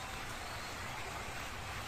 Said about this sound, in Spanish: Ni bien entró el gol de Messi, comenzó a caerse el cielo con granizo completo.